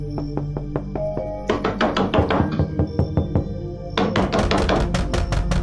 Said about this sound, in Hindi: कोई जवाब न पाकर उसने दरवाजे को जोर जोर से पीटना शुरू कर दिया पर फिर भी कोई जवाब न मिला